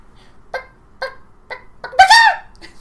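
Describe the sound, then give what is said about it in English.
A person imitates a chicken away from the microphone: four short, evenly spaced clucks followed by a louder, drawn-out squawk, with no other talking. “Speaking of which, you should do your chicken impersonation. It's very loud.”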